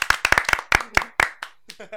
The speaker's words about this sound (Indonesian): tepuk tangan lah